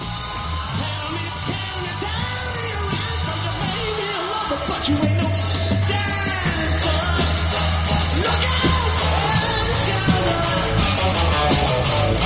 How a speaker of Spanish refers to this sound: Gracias otra vez por los aplausos.